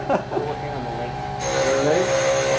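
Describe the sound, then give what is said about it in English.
A mini lathe turning a custom pen whirs with a steady motor hum while a tool scrapes and gouges the spinning workpiece, the cutting growing brighter and harsher partway through, with some speech-like sound mixed in. “yeah, my dad brought his mini lathe. To, uh, he turns custom pins.”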